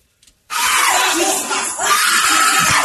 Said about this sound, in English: Play that one more time. That first scream is so worth it. I want to hear that scream again. This poor little guy.